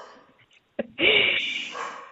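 dog barking

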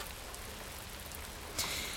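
heavy rain pouring down

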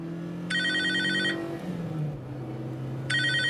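telephone ringing

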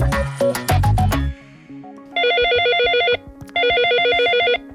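telephone ringing

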